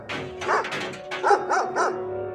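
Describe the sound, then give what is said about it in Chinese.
A big dog barks repeatedly as it throws itself against a shut door: a rapid burst of several loud, deep woofs followed by three more evenly spaced barks, with no voices present. “传来了一阵低吼声，紧接着听见大狗扑向门，砰砰砰的，然后又是狂吠声和撞门声，但门已经牢牢地关上了。”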